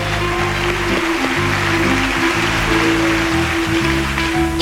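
Loud, sustained audience applause for six participants: a dense, continuous wash of clapping with no breaks, carried over a low, steady droning hum.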